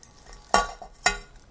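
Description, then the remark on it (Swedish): Two short scraping, rattling bursts about half a second apart as leftover loose tea leaves are tipped back into a metal saucepan while making cold-brewed tea, each fading quickly with no voices. “Så häller jag tillbaka tebladen som är över i kastrullen.”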